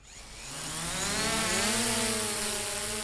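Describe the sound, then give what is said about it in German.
A drone rises into the air over a meadow at Sembacher See, a black cage hanging beneath it on a long string. Its high motor whine swells as it lifts off, the buzzing pitch climbing and wavering steadily, loud with broad hissing noise and no voices. “Über einer Wiese am Sembacher See steigt eine Drohne in die Höhe.”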